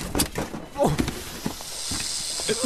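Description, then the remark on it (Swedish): Snakes in a box hiss steadily throughout, a continuous airy sizzle mixed with brief voice-like sounds and scuffling noises. “Det är ju ormar i lådan! Slänger du ormar?”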